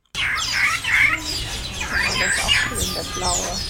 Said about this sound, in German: Jetzt sind wir am Vogelhaus. Das ist Eine Voliere. Eine Vogelvoliere. Ja, das Vogelhaus ist nämlich zu. Also ein paar deutsche Vogelnamen roter Kardinal, Weißohrmausvogel, Blaustirnblatthühnchen und Dreiband Regenpfeifer.